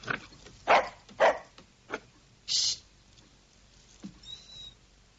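dog barking

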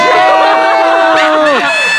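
applause and cheering

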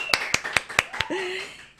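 round of applause

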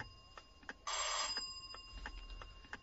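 doorbell ringing

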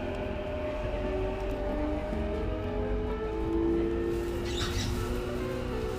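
inside a moving train

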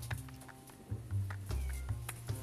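cat meowing

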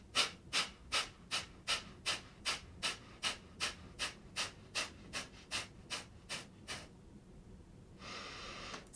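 rapid

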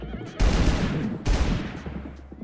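gunshot sound effect

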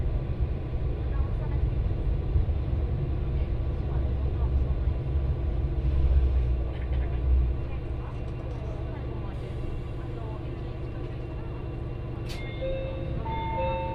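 local train running

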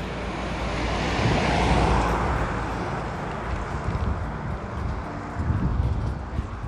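leaf blower running outside

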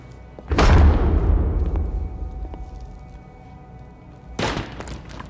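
door being

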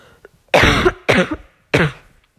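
coughing

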